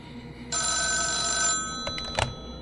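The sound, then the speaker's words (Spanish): A phone booth telephone rings loudly in one sustained bright burst of about a second, followed by a couple of shorter clicks and clatters as the handset is picked up. “El teléfono de la cabina vuelve a sonar.”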